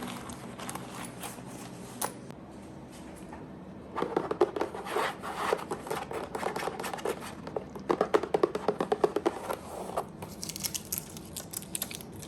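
Tapping and handling of arrows, quiet at first, then a dense run of sharp clicks, light knocks and rustling contact sounds in an irregular rhythm, with no voices.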